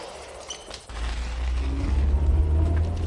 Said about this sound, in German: Der Wagen hält vor dem Tor. Das ist die Gelegenheit. Ja. Sobald das Auto die Einfahrt passiert, schlüpfen wir mit hindurch.